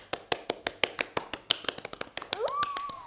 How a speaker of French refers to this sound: Et demander de mieux que le podcast pour euh, fêter les 10 ans d'amitié, je trouve, ça s'applaudit.